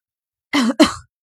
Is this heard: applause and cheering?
no